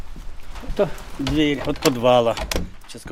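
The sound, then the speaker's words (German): A green wooden door to a school's cellar, with a piece missing at the bottom, swings open with long, wavering creaks from its hinges, two drawn-out groans, followed by a few soft knocks and clunks. “Das ist die Tür zum Keller, durch die wir alle gegangen sind.”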